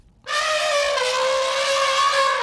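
elephant trumpeting

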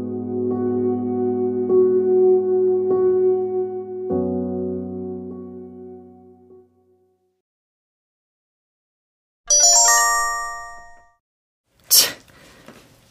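mobile phone ringtone

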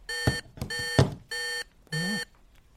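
phone emergency alert tone

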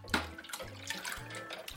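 running water

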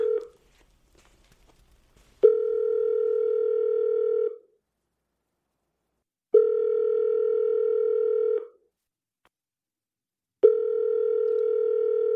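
telephone ringback tone

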